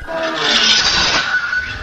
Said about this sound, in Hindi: फिर से जमीन पर किसी चीज के घिसने की आवाज आई